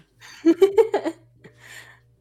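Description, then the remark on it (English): A person imitates a puppy's stretching noise: a quick run of four or five squeaky, whiny voiced pulses, followed by a soft breathy exhale, with no talking around it. “I don't know how oh, well I was able to imitate puppy right there.”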